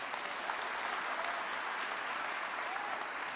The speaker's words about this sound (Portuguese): Neste momento que você deu essa salva de palmas. E se eu fosse você, eu dava palma, salva de palmas mais forte.